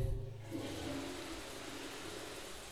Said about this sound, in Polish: Po drodze zeszedłem do łazienki. Mogę puścić wodę.